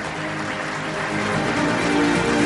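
Sustained applause from an audience, a dense, even wash of clapping that holds steady and swells slightly toward the end, with no voices on top.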